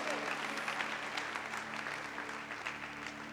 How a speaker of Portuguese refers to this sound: Dê um brado ao Senhor e aplaudam mais um.